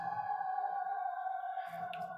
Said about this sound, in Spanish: A mí está justo pasando una sirena al, lado mío. Ah, ah, eh, incendio. Parece.